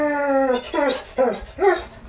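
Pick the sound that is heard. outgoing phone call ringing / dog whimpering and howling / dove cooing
dog whimpering and howling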